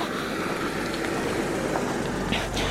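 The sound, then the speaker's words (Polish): A village car passes on a road, giving a steady, fairly loud rumble of engine and tyre noise that holds throughout with no voices. “Ja na bruk zejdę, bo tutaj musimy y, minąć się z y, wiejskim samochodem.”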